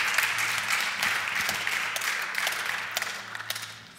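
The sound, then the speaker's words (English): An audience claps steadily for a few seconds, a dense wash of many hands at a fairly even level that thins slightly toward the end, with no voices over it. “By the way you're clapping hands, I believe that you are very blessed.”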